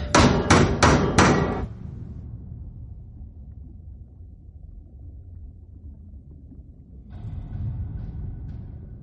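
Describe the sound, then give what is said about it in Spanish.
Four sharp metallic hammer knocks ring out in quick, even succession on a submarine hull as a signal from the crew, followed by a low rumbling drone that swells slightly at the end. “Coge el martillo, que sepan que estamos vivos. Sí, señor. Miguel abre una escotilla. Vale, cuatro golpes.”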